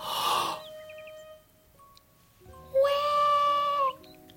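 A newborn baby boy cries from a tent in a thin, wavering wail, first a short burst, then after a pause a longer, louder sustained cry, with no talking.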